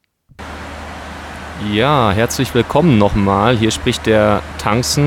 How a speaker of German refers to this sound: Ihr hört vielleicht im Hintergrund die Turbinen des Flugzeugs. Ich melde mich jetzt gerade von der Anreise nach Prag.